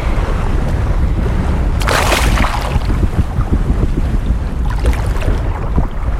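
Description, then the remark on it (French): Constant low rumbling wind buffeting a microphone during a jump, loud, with a brief harsh gust burst around two seconds and more hissy gusts near the end; no talking. “Là, il y a eu des bruits de vent, j'aime pas.”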